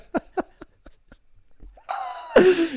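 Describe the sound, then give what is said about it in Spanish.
A pet dog snores and breathes heavily: a run of quick, fading snuffling puffs, then a raspy drawn-out breath that ends in a loud, rough snort. “Se ha puesto a roncar mi perra.”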